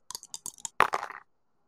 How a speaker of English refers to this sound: Yeah, give me the roll. Let's okay. see it. Oh, come on, dice. Mwah. I gave them a kiss.